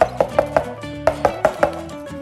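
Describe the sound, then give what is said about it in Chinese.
In a story, a small grey mouse knocks one morning on the door of a bear's house, in two quick sets of four sharp raps, each set evenly paced, with a short pause between them and no voices. “有一天早上，大熊听见“叩叩叩叩”的敲门声，”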